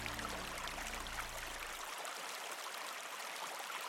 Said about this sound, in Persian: رودخانه کوچک و پرآب امواج کوچک قلتان بر سطح رودخانه